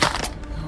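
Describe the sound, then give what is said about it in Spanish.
A mobile phone hits the ground and smashes with a sharp, loud crack, followed by a brief clattering decay, all over in well under a second with no voices. “se hizo bosta el celular.”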